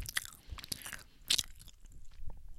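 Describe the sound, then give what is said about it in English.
Loud, wet chewing right up against the microphone, with crisp crunchy bites and smacking mouth sounds repeating irregularly over a couple of seconds, no talking. “I can't chew in the mic like this”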